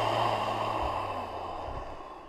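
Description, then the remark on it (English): A long, steady ujjayi exhale during a yoga class, a throaty ocean-like hiss of breath pushed slowly out, even in volume, gently fading toward the end, with no talking. “Take a breath in. Empty out.”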